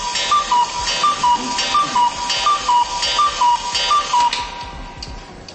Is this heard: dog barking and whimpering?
no